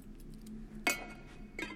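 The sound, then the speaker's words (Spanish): A key pulled from a door lock in a castle: a sharp metallic click with a brief ringing scrape, followed a moment later by a softer second clink, over a low steady hum. “Sacan la llave.”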